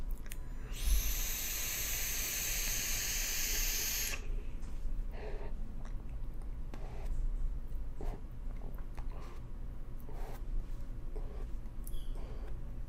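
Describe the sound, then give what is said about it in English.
A vape hisses in one steady, airy rush for about three seconds as someone does vape tricks with a cereal-flavored Ronin Emperor's Crunch e-liquid. It gives way to quieter breathy puffs and faint clicks, with no one talking. “Those are my those are my vape tricks.”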